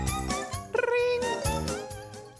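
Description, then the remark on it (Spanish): A voice imitates a ringing telephone with repeated tonal bursts and a rolling trill, loud, filling the short moment without any other talk. “Suena el teléfono.”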